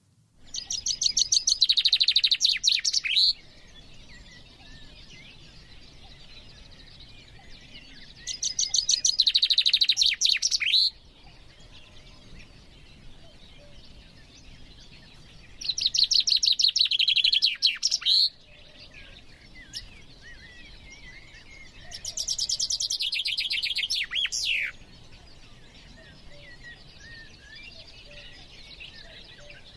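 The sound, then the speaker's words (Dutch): A common chaffinch sings four bright, rattling song phrases, each about three seconds long, spaced several seconds apart and clear against a quiet outdoor background with no talking. “De typische vinkenzang. De typische vinkenslag.”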